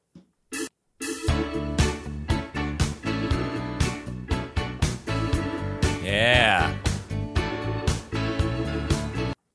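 A soft rock song plays on its own at steady volume, with a regular drum beat under full, layered instruments and a wavering, bending melodic line near the end.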